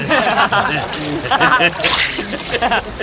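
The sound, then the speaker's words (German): Water sloshes and splashes in uneven bursts as a man wades out of the water, the choppy movement mixed with voices and a bit of chuckling in the background. “Kommen Sie heraus aus dem Wasser!”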